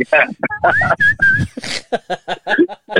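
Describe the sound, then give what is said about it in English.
A person mimics someone whose speech whistles through new teeth, making a loud run of short babbling syllables broken by shrill whistled tones, like talking through teeth that whistle on every word. “this guy's gonna be this guy's gonna be whistling every time he talks.”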